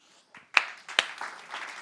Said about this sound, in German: Kirche macht frei, wenn sie gut ist. Dafür kannst du klatschen.